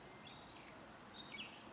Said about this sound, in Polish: może najpierw też włączę podkład dźwiękowy, bo tak na koniec postanowiłem y, umieścić nas w tym miejscu i w tym czasie, czyli nagranie, które wykonałem e, jakieś pół godziny temu za moim oknem, bo bardzo ładnie tutaj jeden ptaszek tak